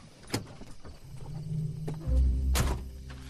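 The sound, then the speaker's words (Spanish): A car engine rumbles low and steady as it drives out of an estate at night, with a couple of sharp metallic thunks and a drawn-out creak as it passes through the rusty entrance gate. No one speaks. “El casero, montado en su coche, salió de la finca atravesando la oxidada puerta de la entrada, perdiéndose lentamente en la oscuridad de la noche.”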